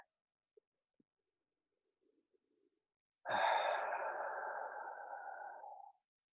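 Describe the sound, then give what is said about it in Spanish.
A single long, deep breath sounds clear after a few seconds of near silence, a breathy rush that holds steady for a couple of seconds before fading out. “Vas a hacer una respiración profunda.”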